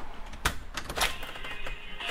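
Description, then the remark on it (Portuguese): A young woman opens a door: a sharp latch click, then a second clack as it swings, followed by a faint airy hiss. No one speaks. “Uma mulher jovem e bonita, com os cabelos castanhos escorridos nos ombros, abre a porta.”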